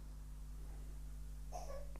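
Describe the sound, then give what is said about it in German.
A baby coughs once, faint, a short burst near the end over a steady low electrical hum. “Da höre ich gerade unser Baby.”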